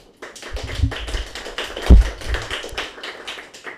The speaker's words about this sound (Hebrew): מאוד יפה אתם מוחאים כפיים, כאילו שאתם הרבה אנשים, אני מאוד מעריכה את זה.